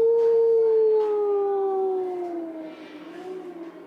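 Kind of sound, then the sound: animal, eerie howl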